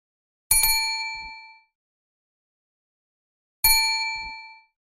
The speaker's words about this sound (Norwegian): Hun ringte på døren til huset der hun hadde forstått at denne Therese bodde. Først etter tre ring ble døren forsiktig åpnet på gløtt.